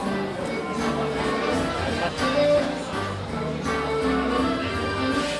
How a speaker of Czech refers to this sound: To už je naše znělka.